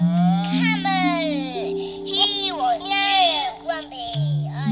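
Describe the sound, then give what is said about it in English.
High-pitched children's voices chatter and squeal almost continuously through a simple baby monitor, its little microphone upstairs in a small house, with a steady electronic hum running underneath the whole time. “This one, you can just hear them. There's a little microphone upstairs, and the sound comes out here.”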